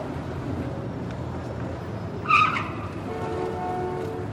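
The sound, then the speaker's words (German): Steady street traffic of many cars and large trucks in the big, loud city of Mar del Plata rumbles throughout as vehicles pass, with a brief sharp tire squeal or brake screech in the middle and engine hum continuing after it. “Ho, hier fahren aber viele Autos.”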